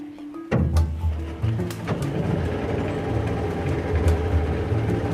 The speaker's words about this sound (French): Moteur marche.